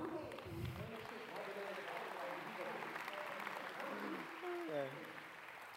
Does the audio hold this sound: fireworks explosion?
no